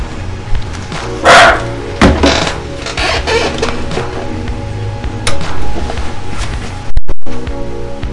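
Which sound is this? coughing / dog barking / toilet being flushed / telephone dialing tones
dog barking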